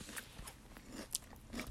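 Crisp crunching and chewing of breakfast cereal, with several sharp bursts in an irregular rhythm over a quiet background and no talking.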